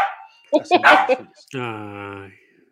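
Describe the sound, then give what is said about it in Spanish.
A pet dog named París, set off by the doorbell, barks several times in a quick, uneven burst, fairly loud, followed by a longer sustained drawn-out cry before things go quiet. “Dijo, yo, yo no voy a estar escuchando ladrillos de perro.”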